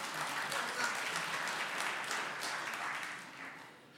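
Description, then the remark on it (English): A crowd applauds steadily, many hands clapping in a dense, continuous wash of sharp, crackly claps that holds loud for a few seconds before beginning to fade slightly. “Yeah, you can clap.”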